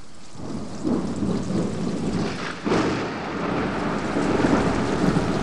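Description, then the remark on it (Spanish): A violent downpour of rain and hail roars steadily across the whole clip, hailstones striking the ground and bouncing, a dense hiss with low rumbling underneath and a brief surge of harder impacts partway through, with no voices. “Nos apiñamos los tres al pie de mi cama mientras la lluvia y el granizo lo iban llenando todo de ruido.”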